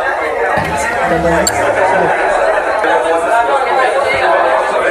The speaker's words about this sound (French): en arrivant au marché du Lez, nous sommes immédiatement plongés dans une atmosphère effervescente. Les étals débordent de couleurs vives, les commerçants sourient et les odeurs chatouillent nos narines.